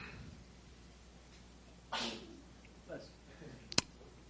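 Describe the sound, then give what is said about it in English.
A single short sneeze bursts out against a quiet, hissy background, followed a moment later by a brief sharp click. “Bless you.”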